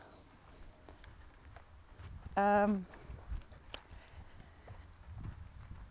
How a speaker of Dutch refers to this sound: Nou, ik loop hier langs de paardenwei en dan komt er een eh, paard naar me toe. Die wil natuurlijk even hallo zeggen.